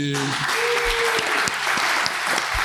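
An audience at a show's first public recording applauds the Podren team steadily, a dense wash of many hands clapping at an even volume, with a few sharper individual claps standing out and a brief low tone near the start.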